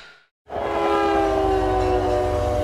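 A freight train rumbles loudly, heard from inside a boxcar, a heavy low roar with a sustained metallic whine over it, starting abruptly after a brief silence and continuing steadily.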